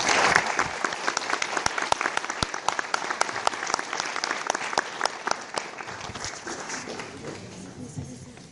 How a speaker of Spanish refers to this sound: Lo recibimos con un fuerte aplauso, por favor.